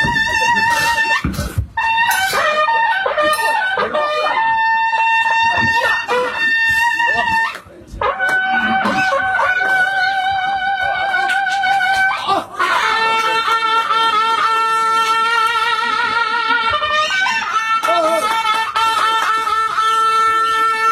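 Loud, piercing music from a large suona (Chinese double-reed horn) plays a bright melody of sustained, wavering notes, pausing briefly a few times before carrying on at full volume.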